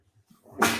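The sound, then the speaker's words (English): A single sneeze: a brief soft intake of breath, then a sudden loud, hissing burst that carries to the end. “excuse me. Bless you.”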